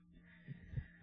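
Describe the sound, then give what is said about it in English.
A cat bangs its head into a microphone: two soft, low thumps, muffled bumps over a steady low hum with no talking. “if there was um, audio disturbance about five or ten seconds ago, that was my cat banging his head into my microphone.”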